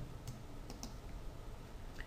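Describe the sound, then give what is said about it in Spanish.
A few soft, sharp clicks of a mouse button and a keyboard key, spaced irregularly over a quiet background hum, faint, with no voices: a mouse click on a layer while holding the Control key, selecting the objects it contains. “selecciono, es decir, eh, hago clic sobre la, sobre, el, sobre la capa teniendo pulsada la tecla eh, control del teclado.”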